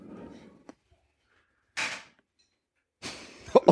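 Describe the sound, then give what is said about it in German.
A belt buckle clanks: a small click, then a short metallic rattle, a pause, and a longer jangling burst with sharp knocks near the end. No one speaks. “Was, was war das denn? Mein Gürtel.”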